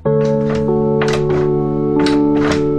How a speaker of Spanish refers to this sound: ¿Un elefante mascando chicle? ¿Un molino de agua en movimiento? No, es el picaporte que se abre y se cierra.